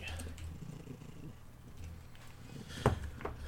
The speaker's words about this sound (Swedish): Ja, visst, jag ska försöka göra mitt bästa här med en otroligt kurrande, purrande, jättemysig katt som jag har precis nedanför skärmen.